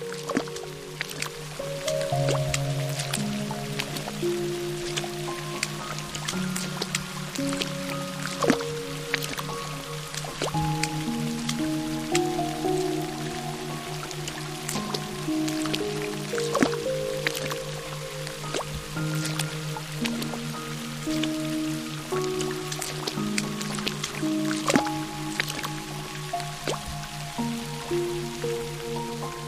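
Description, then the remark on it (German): Squelchy splashes and wet squishing steps as someone jumps through rain puddles, from one puddle into the next, irregular, over a steady, gentle melodic music bed with no one talking. “wie lustig Sunny dabei aussieht, wenn sie in die Pfützen hüpft”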